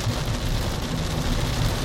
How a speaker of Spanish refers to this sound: No sé si pausar un momento. A ver, voy a pausar y a ver si más adelante la lluvia ah, para y puedo grabar.